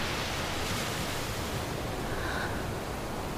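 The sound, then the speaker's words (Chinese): A steady, hissing wash of sea waves at night, with a soft, slow swell like a giant's breathing, filling the whole moment evenly with no voices. “公主，这是海的声音。”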